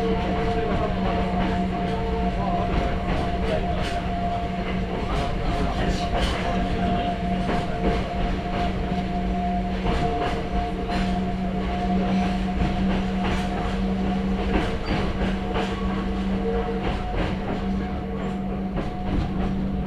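A Hakone Tozan Railway mountain train runs from Hakone-Yumoto toward Ohiradai, rolling steadily along its tracks, a loud continuous rumble with repeated wheel clicks and a sustained low hum and faint tonal whine throughout.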